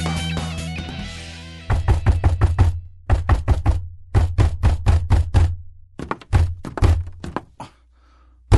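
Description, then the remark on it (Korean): Rapid, forceful knocking on a door, delivered in several insistent bursts of quick thuds with brief pauses between them, loud, after a short musical opening fades out; urgent knocking in a Korean radio drama of the Sherlock Holmes story The Dying Detective. “아, 아이 누가 저렇게 급하게 문을 두드려?”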